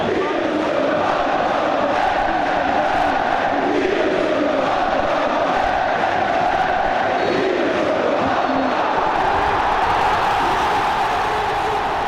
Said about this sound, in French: Avec l'ambiance au stade de la Beaujoire, les dernières secondes, tout un stade, 35 000 spectateurs qui sautent dans la Beaujoire pour euh, fêter la qualification qui arrive et vous l'entendez ensuite le coup de sifflet final.